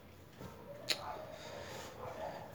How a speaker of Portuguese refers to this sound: Ah, meu caralho de cachorro, que bosta. Dessa rua.